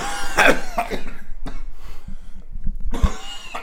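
A person coughs several times in a harsh fit: a rapid pair of bursts, a short pause, then another cough and a final one, with no talking.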